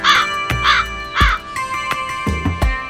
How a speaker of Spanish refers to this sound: En la edición de este episodio no se montaron pájaros adicionales, salvo este.